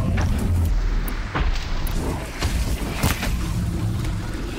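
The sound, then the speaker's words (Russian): Heavy, booming footsteps of a giant mechanical predator from a video game approaching, a few loud irregular thuds landing over a deep, constant rumble, powerful, with no voices. “Это шаги Громозева. А вот и он сам. Один из самых крупных и опасных механических хищников.”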